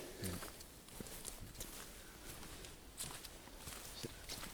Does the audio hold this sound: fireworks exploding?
no